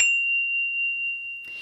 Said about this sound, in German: Hier der Jingle.